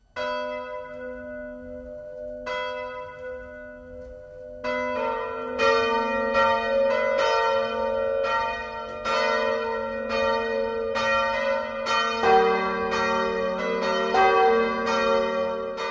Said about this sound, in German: Das Mittagsläuten kommt heute aus Marxgrün in Oberfranken.